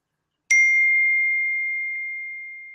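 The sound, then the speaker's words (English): A single electronic timer alert ding from a MacBook laptop, signalling that ramen is done: a bright, clean chime that strikes sharply and rings out steadily, slowly fading over a couple of seconds, with no voices. “Sorry, you heard that too? Yeah, it's my MacBook.”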